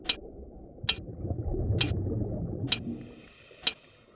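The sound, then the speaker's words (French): Five sharp, bright taps on a bar ring out underwater in a steady rhythm, roughly one per second, over a low, murky churning rumble. The rhythm is beaten on a bar by an aquatic dance instructor leading a class, heard underwater from more than 100 meters away. “j'entends sous l'eau un son très proche. Il provient d'un rythme fait par une barre menée par une prof de danse aquatique.”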